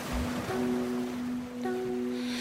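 ocean surf waves

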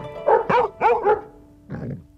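dogs barking

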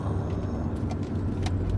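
car driving

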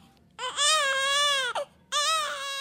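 newborn baby crying

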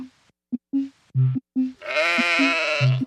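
sheep bleating

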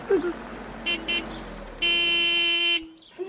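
car arriving

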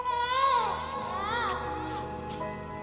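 baby crying desperately

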